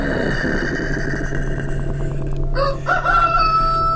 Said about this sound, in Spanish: Tres veces canto el gallo. Tres veces negó Pedro.